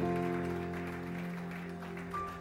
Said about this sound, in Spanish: ¡Wow! ¡Qué tremenda! Un aplauso a Dios.